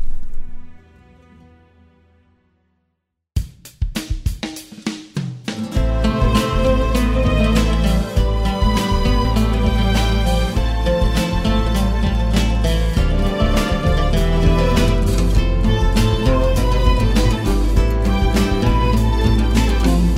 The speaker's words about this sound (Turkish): Şafak isimli bir parça var. Onu dinliyoruz.